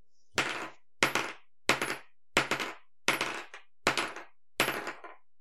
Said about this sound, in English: my rings. That was my rings. They're gonna get him. I just put him on the table